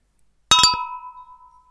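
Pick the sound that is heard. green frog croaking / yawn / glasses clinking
glasses clinking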